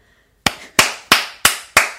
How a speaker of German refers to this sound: Kennst du so Leute, die ganz schlecht klatschen? Die, ja, die nicht, das gehört, hat sich nicht voll angehört, ne?